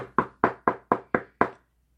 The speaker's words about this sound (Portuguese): Mais adiante, encontrou uma outra casa. Bateu na porta